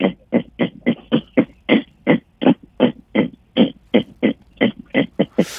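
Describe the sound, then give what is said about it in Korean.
A pig from Jeju Island, a Jeju black pig, grunts steadily and rhythmically. It gives about three short, gruff grunts per second in an unbroken series, fairly loud, with no talking. “그 제, 제주에서 왔는 돼지가 좀 약한데요, 소리가.”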